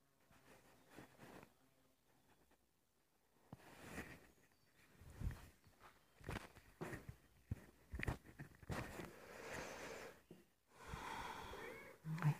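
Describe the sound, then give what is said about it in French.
Soft breathing and snuffling with light rustling and shuffling movement, irregular bursts over a quiet background, as a cat arrives and sniffs around the microphone. “C'est le chat qui arrive.”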